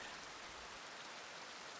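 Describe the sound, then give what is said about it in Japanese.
Steady rain falling, a continuous soft hiss of drops spread evenly through the whole stretch, fairly quiet and with no voices. “振り返るとそこに女性の姿はなくただ雨が降っているだけだった”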